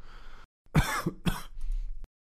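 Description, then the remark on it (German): A few harsh coughs in quick succession, two strong bursts followed by a weaker one, with a bit of throat noise before and a breathy rasp trailing after. “Außer husten.”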